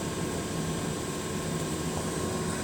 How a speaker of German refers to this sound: Ich bin mal wieder in meiner S-Bahn. Oh Gott, das hört sich an.